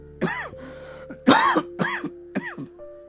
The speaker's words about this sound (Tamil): மீண்டும் இவனுக்கு இருமல்